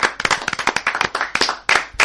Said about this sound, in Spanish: un aplauso va para el campeón